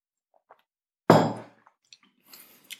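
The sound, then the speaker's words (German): A cup knocks sharply against a hard surface with a single bright clink that rings briefly, followed by faint small taps and a soft, airy sip of cold coffee. “Ich muss noch mal einen Schluck Kaffee trinken. Der ist jetzt echt kalt.”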